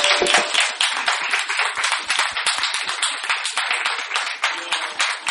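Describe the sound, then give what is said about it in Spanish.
An audience applauding a guest steadily, dense overlapping claps sustained at a fairly loud level for several seconds without letting up. “Un aplauso, vamos a aplaudirle.”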